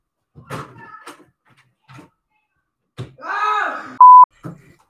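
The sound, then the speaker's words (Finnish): Iljus, a cat, meows several times in the background, ending with one long, wavering, clear meow, followed by a short, sharp electronic beep. “Iljuksako tuolla taustalla just? Kyllä! Se kuuluu.”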